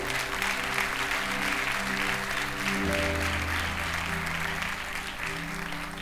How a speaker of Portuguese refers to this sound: Então, dão glória a Deus, aplauda ao Senhor.